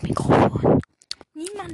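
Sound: smacking lips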